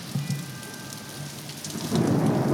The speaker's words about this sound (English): More thunder.